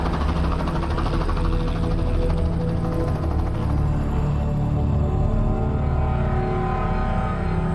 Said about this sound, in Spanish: ¿Qué pasa? Es un helicóptero militar, Mira allí al fondo. Parece fuego o algo así. ¿El helicóptero va hacia allí?